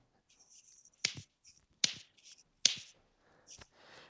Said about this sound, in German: Okay, jetzt klatschen.